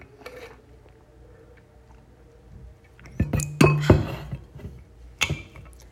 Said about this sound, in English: Um, I need to drink some water. Here's a water break, guys. Drink your water. Everyone, one, two, three.